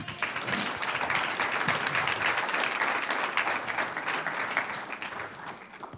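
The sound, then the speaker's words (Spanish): An audience breaks into sustained applause, a dense, steady wash of many hands clapping at once that holds loud for several seconds before beginning to thin out at the end. “Me estás con un aplauso al que vive.”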